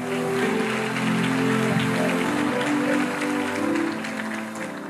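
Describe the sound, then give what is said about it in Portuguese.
An audience applauds steadily, a dense wash of many hands clapping at once, loud and sustained throughout with a slight dip near the end, some faint voices mixed in. “para pra aplaudir, aplaude, irmão”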